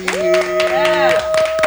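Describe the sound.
Scattered clapping from a small group applauding a show's guest, with irregular sharp claps running through the whole moment over a steady held tone and a voice-like hum underneath.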